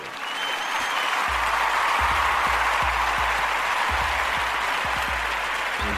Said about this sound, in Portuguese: Um dos maiores no microfone, salva de palmas para ele.